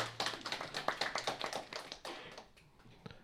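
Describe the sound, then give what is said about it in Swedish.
Audience applause: a steady patter of many hands clapping that fades out over the last second, with no voices. “De ska ha sin applåd.”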